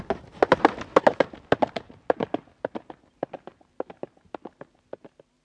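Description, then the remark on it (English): A horse with a rider gallops in a quick, steady beat of sharp hoofbeats that start loud, then fade as the rider wheels the horse around and gallops off, with no voices. “He wheeled his horse around and galloped off.”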